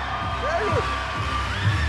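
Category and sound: crowd, audience applause and cheering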